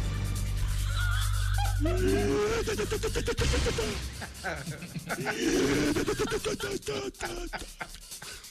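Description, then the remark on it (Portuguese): A voice imitates an airplane turbine starting up, making two rising, whining hums with a rushing, breathy hiss around them. The imitation is loud and continuous for several seconds. “A turbina, vai, a turbina.”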